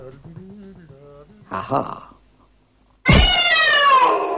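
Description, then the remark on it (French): A person does a loud, drawn-out imitation of a cat's meow, sliding downward in pitch. Before it come some soft hummed vocal sounds and a brief rustle. “Oh putain, tu fais super bien le chat.”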